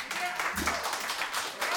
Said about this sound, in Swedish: En applåd!